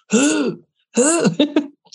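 A man clears his throat in two loud, gravelly bursts, the second ending in a couple of short coughs, with no talking around it.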